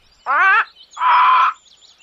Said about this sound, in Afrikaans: Die twee broers is pragtige, veelkleurige voëls wat lief is vir die lewe en ook vir die woud waar hulle bly. Daarom sing hulle elke dag vrolik.